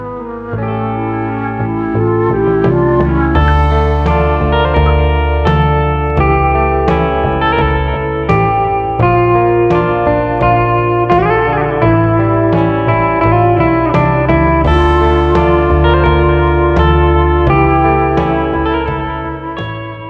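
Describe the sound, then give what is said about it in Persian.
Intro music plays for about twenty seconds: loud, steady instrumental with layered sustained tones, regular rhythmic hits and a processed, slightly distorted, echoey texture, with no voices. “بریم یه اینترو ببینیم برگردیم بیشتر راجبش صحبت میکنیم”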